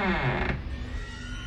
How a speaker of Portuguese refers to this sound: é o primeiro que dá um passo pensando em voltar, a porta se abre com um rangido bem característico.